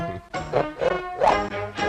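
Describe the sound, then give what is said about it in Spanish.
A dog barks several times in quick succession, fairly loud, each bark sharp and tonal, almost yelping, with brief gaps between them and no one speaking. “¿Esto que ladras el, el dragón? Claro, claro. Es un perro.”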